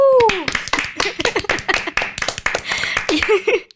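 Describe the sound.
A small group claps hands in a brisk, uneven burst for a few seconds to applaud one member of the group. The clapping is fairly loud, with voices and a bit of laughter mixed in at the start and end.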